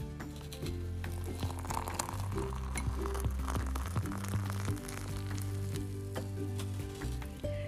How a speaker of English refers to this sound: We are making magic right now. In my cute red little teapot that is brewing or whistling ever so softly.